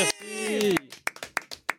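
A short burst of applause at a Montreux Comédie show, welcoming a comedian's segment: a drawn-out vocal cheer, then about seven sharp, uneven claps that are sparse rather than a full crowd's ovation.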